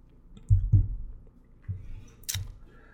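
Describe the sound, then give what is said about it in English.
Someone sipping coffee: a few soft, low knocks like a mug being handled, then a short airy slurp. Faint and quiet, with no talking. “I'll just have a sip of coffee.”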